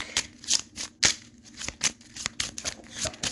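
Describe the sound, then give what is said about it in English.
A deck of cards being shuffled, a rapid series of crisp papery snaps and riffles repeating in an uneven rhythm, with no one talking. “So I gotta shuffle my deck.”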